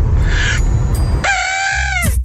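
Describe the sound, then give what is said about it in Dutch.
A person imitates an elephant trumpeting: a breathy, rumbling lead-in followed by one loud, sustained nasal blare that bends downward at the end. “Harde olifant. Ja, harde, olifant.”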